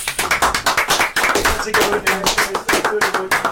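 The hosts of the Tilton Talk Show clap together, a steady run of sharp, rapid hand claps that continues for a few seconds without pause.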